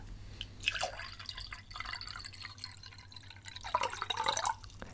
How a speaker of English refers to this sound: You then pass him the green liquid and he pours it into the beaker.